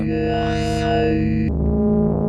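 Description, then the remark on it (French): A buzzy synthesizer formant sound from a demo of a band, a vowel-like formant sweep that rises and falls, then abruptly drops to a lower, rougher sustained note after about a second and a half. No voices. “Formant sound.”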